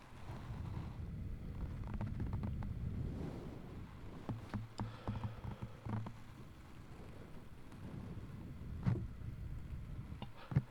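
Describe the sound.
Low, breathy rumbling made by a voice imitating thunder, rolling steadily for several seconds with a few sharp crackles and pops, over a whooshing wind-like hiss.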